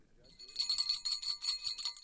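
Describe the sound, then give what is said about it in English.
A bright bell rings in a rapid, steady trill of repeated strikes for about two seconds, signalling a correct answer in a quiz game, clear, with no talking over it. “bell means you yes. got it right. You got it right.”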